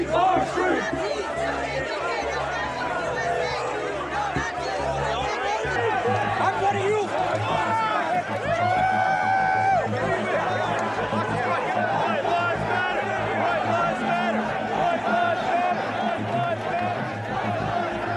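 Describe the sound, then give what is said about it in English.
A large crowd chattering, a dense, steady babble of many voices at a constant loud level, with occasional raised shouts poking out above the din and a low rumble underneath. “Look at the crowd. Wow. There's a lot of them.”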